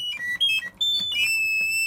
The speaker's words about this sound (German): Die Serinette ist ein Maschinchen zur Erzeugung von Vogeltönen, ein kleines mechanisches Kunstwerk mit Mini-Orgelpfeifen und einer kleinen Walze, wie in damals verbreiteten Musikautomaten.